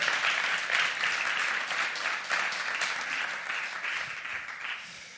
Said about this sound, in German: Dankeschön an unser Worship-Team. Schön, dass ihr gespielt habt, gesungen habt für uns, mit uns. Ein Applaus vielleicht für diese wunderbare Gruppe.